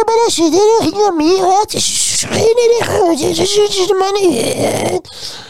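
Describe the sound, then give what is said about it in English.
A person mimics a squeaky, warbling, muffled voice that sounds like talking through water, with wavering pitch and garbled, bubbly syllables for several seconds. “they sound like they're underwater, breathing through a snorkel”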